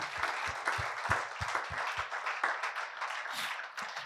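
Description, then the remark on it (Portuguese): An audience at a worship service applauds in honour of God, many hands clapping together in a dense, bright wash of sound, with a few sharper individual claps standing out in a loose rhythm. “Você pode dar uma salva de palmas ao único que é digno.”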